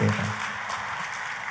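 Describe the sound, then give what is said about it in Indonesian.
A church audience breaks into sustained applause for God, a dense steady wash of many hands clapping at an even loudness, with a brief low murmur or tone at the very start. “Katakan amin, kita kasih tepuk tangan yang paling meriah buat Tuhan”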